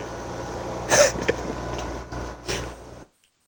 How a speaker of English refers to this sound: I'm back. sorry about that. Shit off I sneeze.